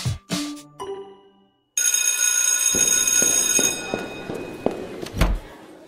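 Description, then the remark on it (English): A short, upbeat intro jingle: a few bright chiming notes, a brief pause, then shimmering sustained synth tones over a steady thumping beat that ends on a louder final hit. No one speaks. “As you would have heard in our little intro jingle”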